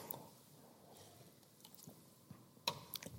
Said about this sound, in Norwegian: Først skal jeg drikke litt vann.